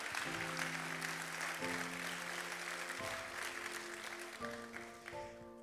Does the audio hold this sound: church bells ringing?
no